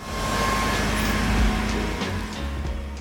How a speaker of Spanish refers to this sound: En esta ocasión el ruido producido en el laboratorio para ver estos resultados no será más que casi el ruido de las propias PCRs, así que dejaré de fondo ese ruidito, esos ventiladores bufando y nos ponemos a ello.